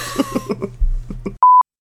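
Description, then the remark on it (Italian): A rapid run of short coughs fills the first second or so, then stops and a brief electronic beep sounds alone. “E rifai che stavo tossendo.”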